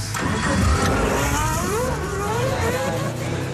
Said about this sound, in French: Voilà, il remplit ensuite le réservoir de son 4x4 ah. avec son urine, puis le véhicule part à toute allure.